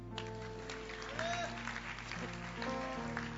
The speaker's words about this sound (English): Clap for Jesus.